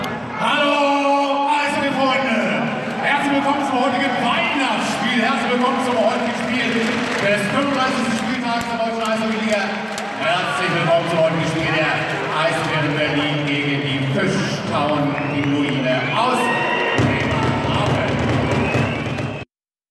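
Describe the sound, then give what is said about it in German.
Loud, dense arena crowd noise with a booming voice over a PA system, cheering and chanting swelling throughout, the reverberant roar of a packed ice hockey game with the Eisbären Berlin at the Mercedes-Benz Arena in Berlin. “Ja, wir waren beim Eishockey.”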